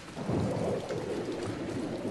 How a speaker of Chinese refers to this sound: 一夜的雨声说些什么呢？